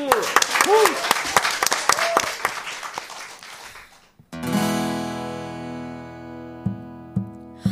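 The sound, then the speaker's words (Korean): An audience applauds with a dense burst of clapping mixed with a few voices, lasting about four seconds before it stops abruptly and a steady sustained musical tone takes over. “이야, 박수.”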